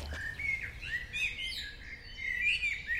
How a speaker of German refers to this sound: dreimal wiederholt. Singdrossel. Ist relativ ja, einfach gefärbt. So eine graubraune Weste und das T-Shirt ist so gesprenkelt.